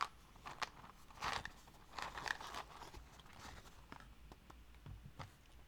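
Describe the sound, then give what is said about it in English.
Wooden matches rattle and tumble inside a cardboard box made of recycled paperboard, a quiet burst of dry clicks and scrapes in irregular clusters, with no talking. “playing with matches in a cardboard box”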